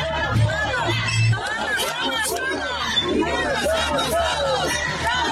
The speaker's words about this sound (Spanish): Lo que escucha usted, lo que está escuchando de fondo son las protestas que este, esta mañana y a lo largo de todo el día han tenido lugar aquí en la Ciudad de México por parte de los sindicatos, porque son varios que integran el Poder Judicial.